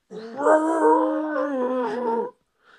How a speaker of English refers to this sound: it was really loud and then it turned into a rasp like a it sounded very much like a howler monkey